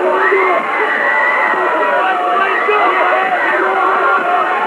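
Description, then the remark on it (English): A loud, dense crowd roar on the sidelines of a night game, with overlapping cheers, shouts and high-pitched whoops, sustained at a steady intensity throughout with no pauses, many voices blending into one continuous wall of noise. “I don't know if you can hear me, but there is pandemonium. Pandemonium on the sidelines.”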